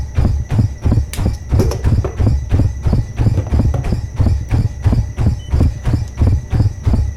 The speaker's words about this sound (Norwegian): Så vi hører pusten igjen etterpå. Sånn. Vær så god. De der små pustene dere hørte der, sånn åh, det er ofte sånn rundt og terskel.